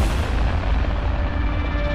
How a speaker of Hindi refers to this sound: मेरे दिमाग में यही सब कुछ चल रहा था कि अचानक से कोई चीज़ मेरी गाड़ी से टकरा गई